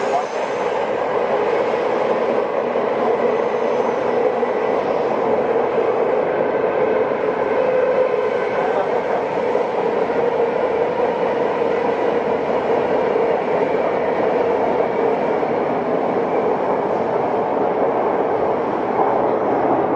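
A Tokyo Metro 05 series wide-door subway train runs between Nakano and Nishi-Funabashi, approaching Iidabashi, with a constant, loud rumbling roar and a whining hum, the rolling noise holding even throughout without pauses.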